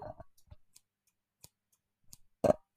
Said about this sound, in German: Findest du diese uh. Schere geil?